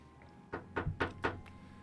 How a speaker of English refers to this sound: you hear a quick set of raps on your front door.